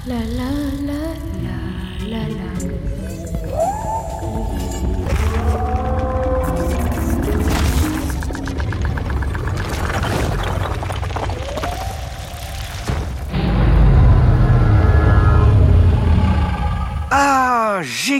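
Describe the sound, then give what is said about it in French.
A Tyrannosaurus rex roar sound effect rings out loud, long groaning, wavering cries layered over a deep rumbling bass, swelling into an even heavier bellow near the end. “Son cri ressemble à un hurlement. Je n'ai jamais rien entendu d'aussi fort et puissant.”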